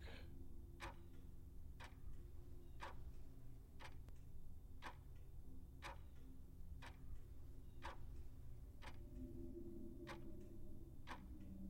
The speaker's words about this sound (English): And then for a moment, all is still, and all is silent save the voice of the clock.